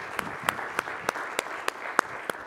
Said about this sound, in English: Let's give King Jesus a hand clap if you wouldn't mind, please.